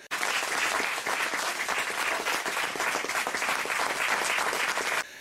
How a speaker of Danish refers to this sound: Og det er måske her, man lige burde give en klapsalve.